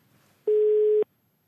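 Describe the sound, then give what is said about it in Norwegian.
A single loud, steady telephone tone sounds for about half a second, a flat mid-pitched beep, the ringing signal of an outgoing call to Norway's health minister Bent Høie, with quiet before and after and no voices. “Skal prøve å ringe han.”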